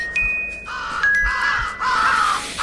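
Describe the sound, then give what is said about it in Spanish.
A crow in a zombie video game caws in a series of harsh, drawn-out, loud calls, with thin tonal ringing notes layered over them and no voices. “Seguimos para abajo para protegernos del cuervo y agarramos otra luz también.”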